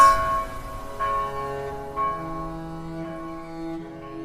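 A bell rings out in a steady series of strikes, roughly one per second, each resonant tone lingering and overlapping the next. Loud and clear, with no voices.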